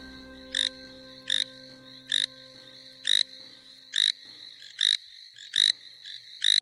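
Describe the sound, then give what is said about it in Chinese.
A frog croaks in a steady, regular rhythm, about ten short raspy calls spaced roughly half a second apart, each a bright buzzy burst. No one speaks; a faint low hum sits underneath. “过了一个礼拜，不仅村民们能享受美妙的歌声，青蛙家族们也有个。干净的家园，每天都开心唱歌的呱呱。”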